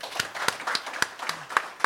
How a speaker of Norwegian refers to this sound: Ja, det var helt ja, det er applaus, uh, eh, syns jeg.